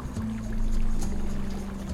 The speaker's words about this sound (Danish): Lyt bare til min strøm og min stille brusen, som sender tankerne på langfart, eller klukker hjernen til ro bag dine lukkede øjne.